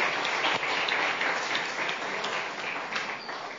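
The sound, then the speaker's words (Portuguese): An audience applauds the Lord in the name of Jesus, many hands clapping in a dense, continuous wash that holds at a fairly loud level and fades slightly toward the end, with no voices standing out. “Aplauda o Senhor no nome de Jesus.”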